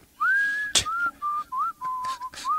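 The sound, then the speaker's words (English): Someone whistles a short, bouncy melody of several sustained notes with small slides between them, clear, with a brief sharp click partway through and no talking. “Sound effects right. on demand is apparently my new specialty.”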